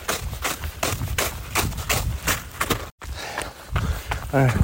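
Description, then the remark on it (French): Quick, steady footsteps of someone running crunch through half-icy snow that gives only slightly underfoot, about a dozen sharp, squeaky steps with a dry, polystyrene-like texture, followed by a brief pause and a short burst of a voice at the end. “Et le bruit, ça fait vraiment penser à du polystyrène.”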